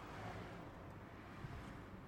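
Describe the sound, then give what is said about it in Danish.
A steady, low rumble of road traffic, with more and more cars driving past in a continuous wash of engine and tyre noise. It is fairly quiet, with no voices. “Det går op for Geo, at der bliver ved med at komme flere biler, så det vil tage hele dagen at tælle dem.”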